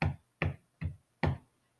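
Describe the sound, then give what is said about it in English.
Four sharp taps in a fairly even rhythm, each a crisp, loud knock that fades quickly, with brief silence between them and no talking. “There was suddenly a loud tapping noise.”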